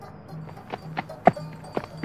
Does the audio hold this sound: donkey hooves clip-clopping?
yes